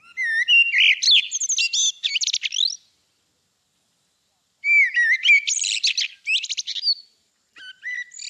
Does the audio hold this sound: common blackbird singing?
yes